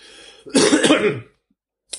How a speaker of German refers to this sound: ich muss da kurz husten.